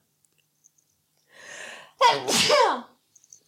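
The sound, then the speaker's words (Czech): A single loud sneeze: a breathy inhale builds, then an abrupt explosive burst trails off into a voiced, fading tail. No talking accompanies it. “Budu číkat.”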